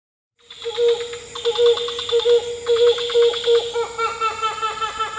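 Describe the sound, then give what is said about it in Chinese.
A club-winged manakin in a cloud forest in Ecuador: a steady, buzzy, violin-like tone held throughout, overlaid with rapid rhythmic ticking pulses that come in bursts, with no voices present. “这是厄瓜多尔云雾林里的梅花翅娇嗡的叫声。”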